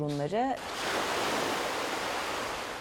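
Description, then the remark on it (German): A brief voice fragment at the start gives way to the steady, broad hiss and wash of waves breaking on the beach of the Turkish port city of Mersin, holding a fairly even loudness throughout. “der Strand der türkischen Hafenstadt Mersin.”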